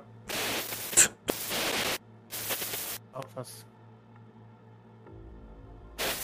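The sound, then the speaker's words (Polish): Harsh bursts of radio static crackle in loud waves as a phone call is jammed, two long hissing surges followed by shorter choppy ones, over a low steady electrical hum that drops in pitch near the end. “Dobra, zakłócają nas tutaj.”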